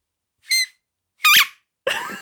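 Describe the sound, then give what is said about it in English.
A whippet puppy squeezes a squeaky toy three times, each a loud, high-pitched squeal with short pauses in between; the last squeak drags on longer and rougher than the first two. “Are you still squeaking the squeaker? yeah, it's a really good one.”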